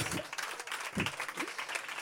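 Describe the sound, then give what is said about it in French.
An audience applauds a journalist's book published by Flammarion: a dense, steady wash of many hands clapping that fills the whole moment, with a few faint voices or laughs surfacing briefly underneath. “Qu'on peut applaudir.”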